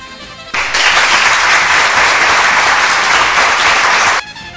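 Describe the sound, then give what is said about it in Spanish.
A burst of steady applause starts abruptly, a dense rush of many hands clapping at an even loudness for about three and a half seconds before cutting off, with a faint hum before and after; the applause is for the audience after the programme broke a station record. “Este aplauso es para ustedes porque una vez más hemos roto récord.”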